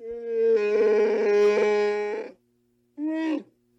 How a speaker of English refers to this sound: Get a Wookiee roar in, that would be good.